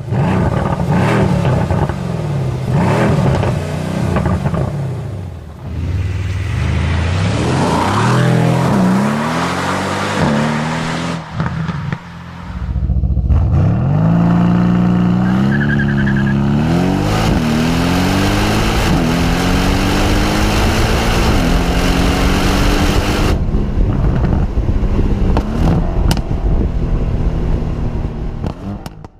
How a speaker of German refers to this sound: Welche Karre klingt so?